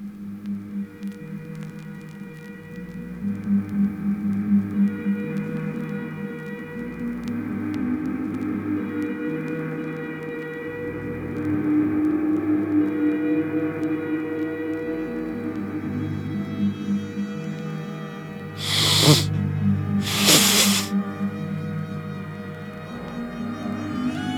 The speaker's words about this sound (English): That's right. I'm blowing my nose on air. Like all professional DJs, that's how they open their set by blowing their nose so that they can then speak clearly and with authority.